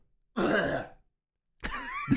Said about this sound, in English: So first you gotta clear your throat and then you gotta do sorry, I've been like talking all day. I'm freshly back at school, so my throat is gonna go back to how it was all last year